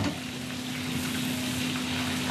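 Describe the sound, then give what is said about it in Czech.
Bacon sizzles steadily as it is lightly fried in a pot, a dense, continuous crackle and hiss with a faint low hum underneath and no talking. “Tak, slaninu máme, slaninu máme v hrnci a teď ji lehce budeme restovat.”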